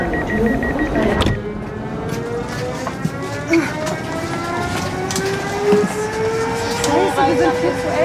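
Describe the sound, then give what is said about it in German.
Inside a busy corridor of a Czech train, people squeeze through looking for their compartment: a steady rumble and a rising electric motor whine as the train pulls away, with muffled voices and a sharp knock near the start. “Sie quetschen sich durch den tschechischen Zug auf der Suche nach ihrem Abteil.”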